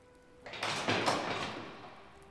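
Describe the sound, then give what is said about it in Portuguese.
A door handle is jiggled and rattled against a locked door as someone tries the first of two doors on the left, a few quick clattering knocks, then fading to quiet. “Ele tenta a primeira.”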